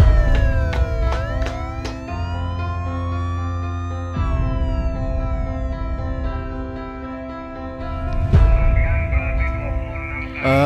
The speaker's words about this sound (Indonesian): kok ada suara sirene polisi gitu ya di depan? Ada apaan sih?